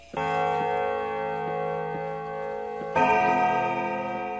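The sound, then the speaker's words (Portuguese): A bell rings with a sustained, shimmering tone, struck once and then struck again louder about three seconds later, its long metallic resonance ringing out with no voices present. “Vamos lá então, toca o sino.”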